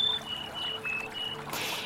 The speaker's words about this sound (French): Fermez les yeux. Écoutez bien le bruit du ruisseau et des oiseaux qui chantent. C'est précieux.